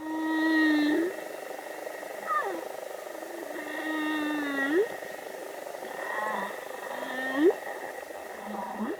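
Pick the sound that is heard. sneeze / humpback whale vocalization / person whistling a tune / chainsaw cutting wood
humpback whale vocalization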